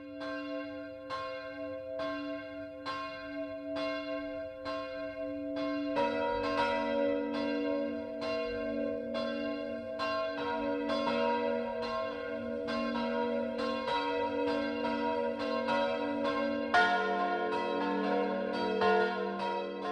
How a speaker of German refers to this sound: Es ist 12 Uhr. Das Mittagsläuten kommt heute aus Obereisenheim in Unterfranken.